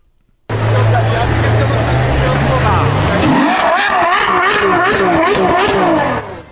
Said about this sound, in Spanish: Naturalmente, todavía arranca el carro, no cagajo.